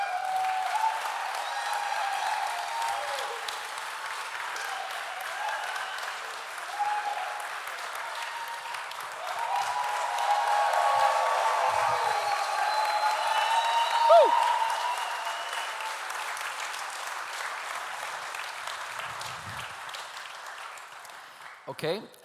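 Sustained applause from an audience, a dense steady patter of many hands clapping that swells slightly in the middle before holding level, with faint crowd noise mixed in.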